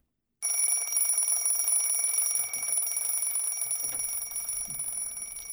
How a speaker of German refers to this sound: Darum ich euch doch nur morgen ein paar Minuten länger Schlaf und drückt beim Wecker nochmal einisch mehr auf Schlummern.